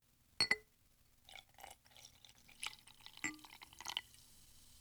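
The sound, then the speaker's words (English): Carbonated water with some lemon is poured into a glass after a sharp initial click, followed by soft, crackling fizz and scattered bubbly bursts, quiet and with no talking. “carbonated water with some lemon to it”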